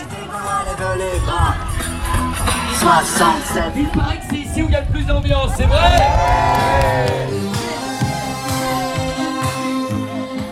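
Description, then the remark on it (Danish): Loud, continuous shouting, whooping and cheering at the Tour de France sponsor caravan, where people riding converted trucks and motorbikes shout and scream to build atmosphere; many overlapping excited voices, with raised calls rising above a dense babble throughout. “Og så sidder der nogen og råber råber og skriger og prøver at lave en stemning og høj musik.”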